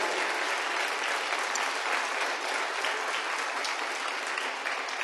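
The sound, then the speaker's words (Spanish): A large audience applauds the Lord steadily, a dense, continuous wash of many hands clapping at once that stays loud and even for the whole stretch, with no one speaking over it. “De un aplauso al Señor.”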